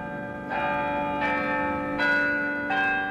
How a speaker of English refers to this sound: The historic bells of Albany City Hall return us to Albany Street, a public affairs presentation of Albany Broadcasting.